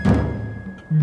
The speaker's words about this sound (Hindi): तभी हवा के झोंके से टहनिया ढोल से टकराई